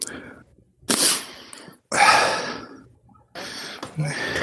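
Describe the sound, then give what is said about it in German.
Heavy, labored breathing, with several loud, ragged breaths in and out separated by short pauses, from someone badly out of breath. “Ich höre nur dein asthmatisches Atmen.”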